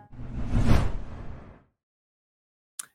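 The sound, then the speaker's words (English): A single broad whoosh sweeps up and fades over about a second and a half, loud, followed by silence and a brief faint click near the end. “The, the, the swoosh caught her right there at the end”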